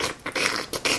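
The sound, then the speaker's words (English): Someone makes a squidgy, squelching noise with their mouth, four quick scratchy bursts in an uneven rhythm, imitating the soft sliding, scurrying sound of dancers' feet on the floor. “and and also a kind of like squidgy noise, like”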